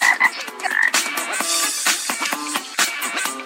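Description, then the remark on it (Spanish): Frogs croak in a steady, overlapping chorus, repeated pulsing calls layered over a dense background of chirps, fairly loud throughout with no talking. “Odio las ranas para mí.”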